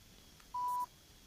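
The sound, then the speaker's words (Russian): A single short electronic keypad tone as a phone number is dialed to call the chairman of a garage cooperative in Biysk, Altai Krai: a clean, steady beep lasting about a third of a second over faint background hiss. “Звоним председателю Комарову Вячеславу Александровичу.”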